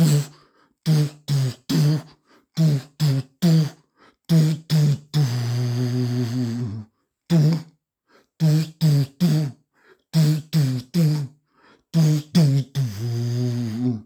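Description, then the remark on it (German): A motivational rock power song for training plays from a phone: punchy staccato hits in quick groups of three, broken by a long held note, the pattern repeating with no one talking over it. “Das sind halt Lieder, die bei mir fahren.”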